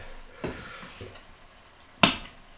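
Food sizzles steadily in a hot cast iron pan while a few sharp, irregular chopping knocks strike the metal as the food is cut into small pieces right in the pan, the last knock the loudest; no one speaks.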